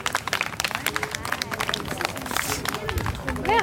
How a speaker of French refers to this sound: On peut l'applaudir.